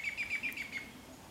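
Birds sitting in the branches of a forest of firs, birches, pines and beeches chirp a few metres overhead, a quick run of about six high, bright tweets in a steady rhythm, then a softer trailing call. The sounds are fairly quiet, with no voices.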